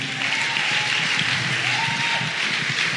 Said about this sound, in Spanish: se merece un fuerte aplauso.